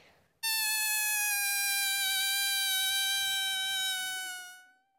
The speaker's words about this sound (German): Ich blase einen Luftballon auf und dann ziehe ich die Öffnung ganz weise und dann macht das so ein schreckliches Geräusch.